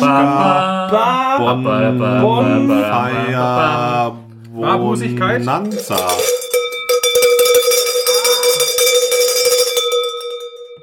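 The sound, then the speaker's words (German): Loud bells ring out with a sustained, shimmering tone for several seconds, following a busy stretch of melodic, harmonic sound that may include voices; the sound is from the Treehouse Bonanza. “Ich dachte Glocken.”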